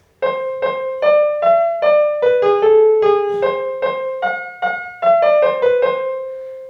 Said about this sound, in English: We wanted it to sound more majorish, and for this we, for this reason we changed those notes up. So this um, this the song we just heard sounded uh, sounds like this in the new pitch space.